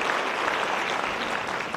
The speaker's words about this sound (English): And, church, can we give them a big thank you round of applause this morning for serving? Thank you guys so much.